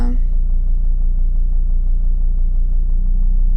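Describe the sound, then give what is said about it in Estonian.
A steady, low engine drone fills the cabin of a car, constant and fairly loud throughout with no change in pitch, like an idling or cruising motor heard from inside. “täna olen mina olnud julge, ületanud ennast sellega, et autos üksinda justkui iseendaga vestelnud,”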